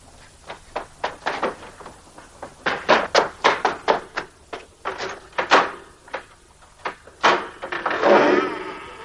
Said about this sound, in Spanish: Eric corre hacia el sótano y abre la puerta de la leñera.